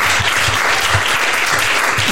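Audience applause fills the whole stretch while microphones are being sorted: a dense, steady wash of many hands clapping at an even, fairly loud level, with no voices standing out above it.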